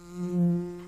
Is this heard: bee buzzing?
yes